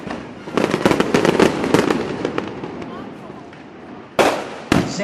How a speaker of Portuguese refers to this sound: Então, sons de fogos, por favor.